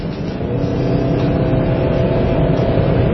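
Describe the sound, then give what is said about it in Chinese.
An MPV's 2.5-liter engine accelerates hard under load to nearly 5000 rpm in a mid-range acceleration test, a steady, smooth low drone with a faint rising whine, sustained at even loudness throughout with no voices. “而且，即便现在转速接近了五千转，它发动机表现出来的依然是非常的柔顺啊，噪音并不是特别的明显。”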